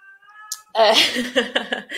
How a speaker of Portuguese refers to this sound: eu quero que vocês saibam que esse barulho é dos meus gatos brigando